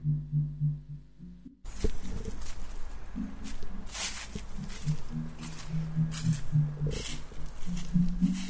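Woodland ambience in a forest, recorded while walking with a one-year-old in a pram, with doves cooing in low, repeated phrases through a steady rustling background, occasional soft bursts of noise, and no voices.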